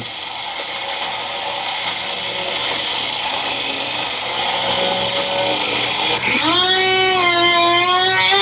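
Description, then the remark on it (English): A string trimmer weed-whacking a two-foot lawn whines loudly and steadily with a buzzing, high-pitched engine drone, then near the end the motor dips in pitch and revs back up, rising and wavering. “They're all weed whacking.”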